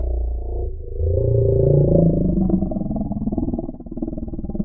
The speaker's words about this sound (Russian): Но общаться между собой они предпочитают в основном на частотах низких. Это примерно до 60 Гц. Или иначе, если использовать музыкальные термины, киты поют свои песни ультранизким басом.